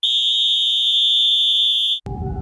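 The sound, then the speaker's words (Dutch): A referee's whistle sounds one long, shrill, steady blast for about two seconds, signalling the end of the first half of a football match, loud and unbroken, then cuts off abruptly into a low murmur of background noise. “Ja, en daar is het fluitsignaal, het einde van de eerste helft.”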